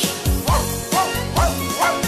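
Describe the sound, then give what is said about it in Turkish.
Four evenly spaced, loud dog barks, a voice imitating a barking dog in a bouncy rhythm over steady musical accompaniment, in a Turkish children's song about the dogs on a farm. “köpekleri var”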